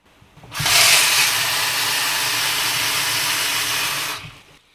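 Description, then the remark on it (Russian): Tap water runs steadily into a container for about four seconds as someone draws water to make tea, a loud, even rushing hiss that starts abruptly and cuts off cleanly, with no voices. “Э, воду набираю из-под крана.”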